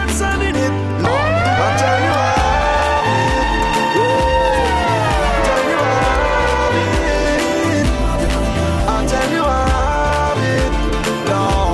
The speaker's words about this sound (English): Every time I hear a police siren, I'm thinking this is good.